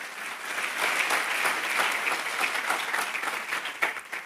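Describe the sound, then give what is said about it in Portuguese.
Sustained applause from a sizable audience applauding the Lord during a sermon, dense and steady clapping for several seconds at a fairly loud, even level. “Se você entendeu, aplauda ao Senhor.”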